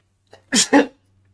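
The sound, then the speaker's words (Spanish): A single sharp sneeze bursts out after a brief inhaled lead-in, with a quick two-part explosive release and then quiet. “Para terminar con un estornudo, no sé si se escuchó, pero bueno, lo siento.”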